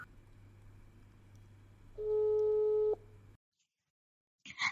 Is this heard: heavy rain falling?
no